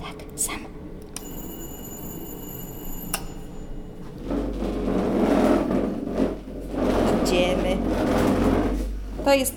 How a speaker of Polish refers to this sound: Otworzymy drzwi, żebyś słyszał.